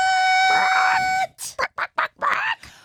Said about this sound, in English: chicken we have like a chicken musical interlude. This is the greatest thing ever. Chicken sounds a little sick. I don't know. What's wrong with that chicken?